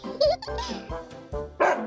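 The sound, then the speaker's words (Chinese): A large dog that often barks barks loudly and repeatedly from behind a railing at two children walking home from school, about five harsh, rough barks in quick, uneven succession, with no one talking. “糟糕了，在回家的路上，那只很爱乱叫的大狗正隔着栏杆对他们大叫着。”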